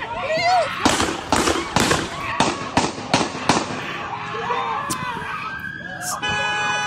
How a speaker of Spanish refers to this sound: O sea, como que si con un disparo no fuera suficiente, ¿no? Hay que darle siete balazos para que, para que amarre.